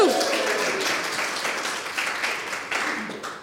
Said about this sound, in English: So, and be happy because you passed. You got one of our two smaller questions. Big round of applause.